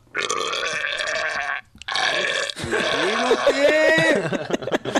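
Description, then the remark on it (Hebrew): Deep, drawn-out burping, loud, in two long belches separated by a short pause, the second rumbling and gurgling with a low, wavering pitch like a cow bringing up cud. “משהו מעלה גרה.”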